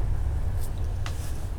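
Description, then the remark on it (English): A train rumbles steadily and fairly loudly, with a deep continuous roar and a couple of brief high hissing or squealing bursts over it, about 20 minutes outside Budapest, Hungary, on the Bratislava to Budapest route. No one speaks. “Hey, that's the train, here.”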